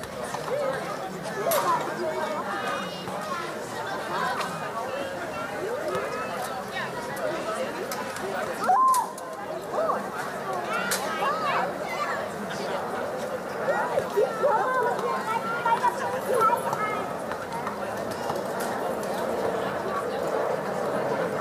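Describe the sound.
Outdoor street ambience on a summer evening in Berlin, with a steady hum of crowd chatter and overlapping voices, occasional footsteps and brief clatters rising out of the continuous babble.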